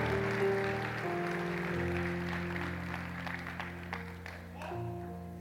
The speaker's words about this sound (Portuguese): Pode aplaudir Jesus. É. Aleluia.